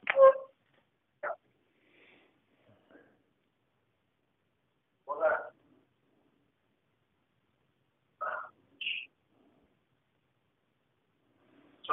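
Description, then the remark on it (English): A small dog gives several sharp, isolated yips and barks during an interview, spaced irregularly with quiet gaps between them, moderately loud. “sorry, I have a little dog that decided he wanted to get on to this interview.”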